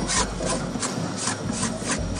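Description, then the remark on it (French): Hand scraping of a dried, deposited base layer off a wooden boat hull with a spatula, by volunteers restoring wooden boats: steady, rasping strokes repeating in a rough rhythm, each pass a bright, gritty scrape, with no one talking. “Oh là là, vous faites tout à la main comme ça avec une spatule On n'a pas le choix, il y a des endroits inaccessibles.”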